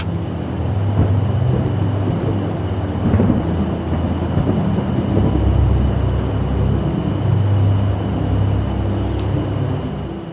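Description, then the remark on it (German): A deep, continuous rumble of faint thunder from a far-off, approaching thunderstorm rolls on without pause, low and heavy, swelling slightly in the middle. No voices are heard. “Von weitem ist ein leiser Donner zu hören.”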